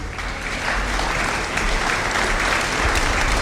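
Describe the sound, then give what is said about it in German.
Subdued applause rises from a crowd in the stands at a quiz show after a contestant's answer, a steady wash of many hands clapping without sharp peaks, holding an even, moderate level throughout with no voices over it. “Verhaltener Applaus ertönte von den Rängen, noch bevor Nobel die Antwort mit übertriebener Begeisterung für richtig befand.”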